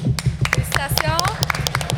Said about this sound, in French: On les applaudit.